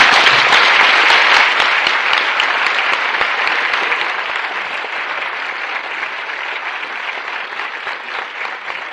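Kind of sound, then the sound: crowd, audience applause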